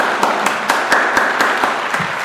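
A burst of steady applause from a small crowd, with a few sharper, evenly spaced claps standing out in a quick rhythm, fairly loud and close, with no talking over it.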